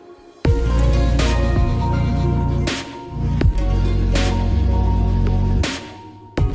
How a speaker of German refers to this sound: Was ihr hier hört, ist die Musik aus unserem neuen Deutschlandfunk-Podcast.